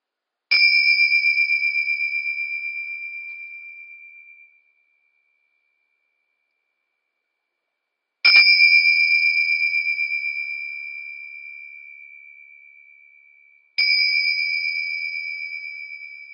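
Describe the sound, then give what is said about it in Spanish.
Meditation bells ring out three times to end a meditation practice, each bright, clear strike fading into a long, pure shimmering tone before the next, the last two closer together, with silence and no voices around them. “Y así nos vamos preparando para finalizar la práctica con el sonido de las campanas.”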